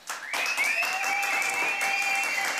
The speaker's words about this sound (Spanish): ¿Quién le está aplaudiendo a este baboso, tututul?